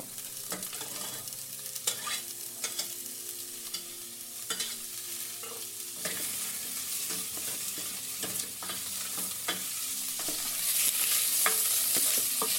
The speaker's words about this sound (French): je vais la faire saisir de toutes parts. Donc elle va relâcher également un petit peu de gras.